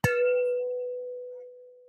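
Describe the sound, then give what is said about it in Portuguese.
A single bright clink of glasses touched together in a toast, followed by a clear, steady ringing tone that slowly fades over about two seconds, with no talking. “Um brinde, amiga. Vamos lá, um brinde.”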